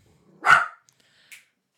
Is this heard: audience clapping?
no